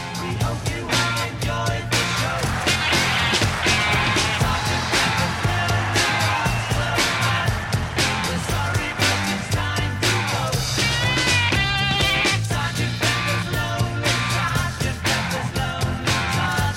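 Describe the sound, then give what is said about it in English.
A loud, dense rock song plays throughout, driven by crunching, distorted electric guitars over a steady bass and drum groove, with no talking over it. “that second version of … kicks ass. That rocks.”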